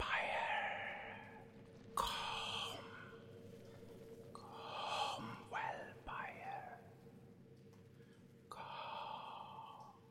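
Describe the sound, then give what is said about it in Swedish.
Faint, breathy whispers drift in and out in several hushed bursts, airy over a low, steady rumble, with no clear words and an eerie, reverberant quality, seeming to come from deeper inside and bouncing up from a place much further down. “Du tycker dig höra äh, viskningar som kommer djupare in härifrån. Och det låter som om det studsar och letar sig fram från en plats betydligt längre ned.”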